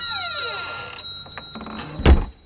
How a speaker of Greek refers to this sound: Την ξύπνησε το γκλίνγκ στην πόρτα.